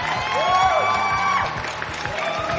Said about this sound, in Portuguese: Uma salva de palmas eletrônicas para o Lucas.